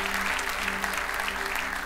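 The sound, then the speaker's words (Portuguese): An audience applauding the Lord together, a dense, steady wash of many hands clapping at an even level throughout, with a low sustained hum underneath and no clear voices. “Se você crê, pode aplaudir ao Senhor, que Ele está aqui nesse lugar.”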